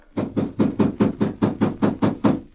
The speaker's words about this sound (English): He walked up the steps to the porch. Inside, when Miller heard the knocks.